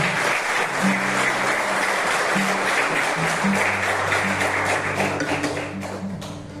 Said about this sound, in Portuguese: Pode aplaudir o Espírito Santo para essa proposta de Deus.